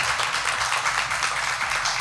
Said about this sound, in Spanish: Hermosa, damos un aplauso enorme y con cariño, a Gloria Calzada. Gloria Calzada.